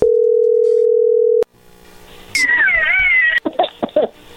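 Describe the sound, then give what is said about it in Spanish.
A telephone ringing tone as an outgoing phone call goes through: one steady, mid-pitched electronic beep that lasts over a second and cuts off abruptly. After a short pause, a cat meows loudly with wavering, drawn-out cries. “Bueno, a ver, ahí entra la llamada.”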